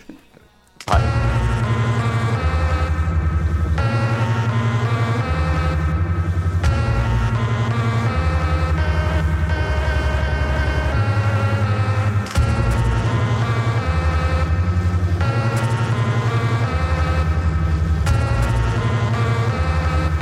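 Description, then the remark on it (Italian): A loud, continuous stretch of recorded music: sustained layered tones over a steady bass line that changes note every couple of seconds, with no one talking over it. “Nel frattempo proponiamo agli ascoltatori un assaggio di questo brano … per salvare …”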